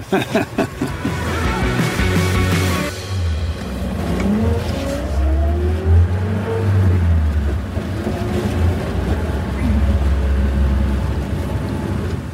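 A vintage car engine rumbles and revs up and down for about twelve seconds, the low throaty note rising and falling in pitch, loud, with no talking.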